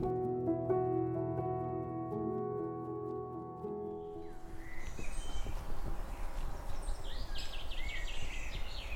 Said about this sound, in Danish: Vi er i en have uden for et træhus i Tikøb – det er som om fuglene synger lidt højere her. Som om naturen er tættere på.